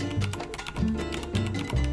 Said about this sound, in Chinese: 敲打机械键盘的声音大概是五十分贝，这样子是五十分贝。